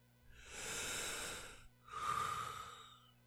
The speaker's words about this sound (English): Try measured breathing exercises where you count the lengths of your breaths to relax your body.